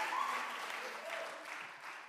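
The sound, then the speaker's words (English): A church audience claps their hands in praise of God on Easter Sunday, a dense, steady burst of applause that holds at an even loudness for a couple of seconds, with faint voices and cheers mixed in. “And let's give God a hand clap of praise on this Easter Sunday.”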